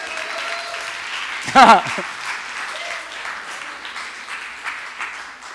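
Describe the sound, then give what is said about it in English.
An audience claps steadily for several seconds, a dense wash of hand claps, with a brief louder vocal cheer rising over the applause partway through. “Give me, an, give me a clap for an attempt.”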